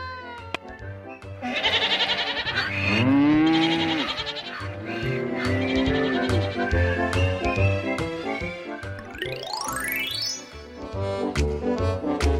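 A busy run of farm animal calls as a goat, a cow and a donkey are let out of a house: wavering goat bleats and a low, drawn-out moo, layered over a steady low pulse, with a quick rising whistle-like slide near the end. No one speaks.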